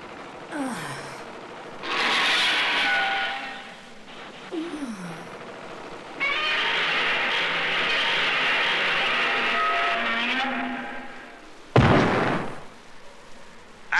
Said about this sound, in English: did you see, you see the way that rocket hit her? I know. My goodness.